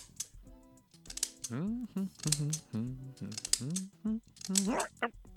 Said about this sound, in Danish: Det var en god jingle. Det var nemlig en super god jingle.